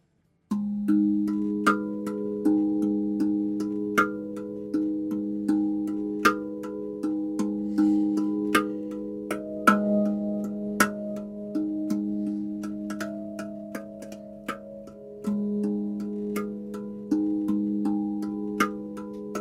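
A melody rings out on a metal percussion instrument, each struck note clear and bell-like with a long sustain, tones overlapping in a steady, gentle rhythm with no voices.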